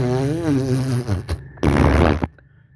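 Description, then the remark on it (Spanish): A buzzy CRF dirt bike engine drones as it passes through the area, with a wavering pitch, then lets out a loud, harsh rasping burst before cutting off to near quiet. “Perdón, otra persona inculta justo atravesando nuestra área que cree que, que cree que su CRF es algo cool porque suena”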